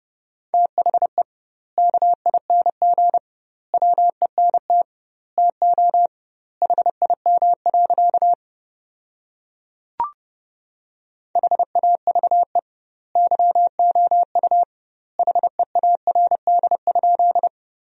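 Morse code sent at about 30 words per minute with doubled word spacing, sending sentences built from the 400 most common words: a steady mid-pitched tone keyed in rapid dots and dashes, grouped into words with wide pauses, plus one brief click partway through.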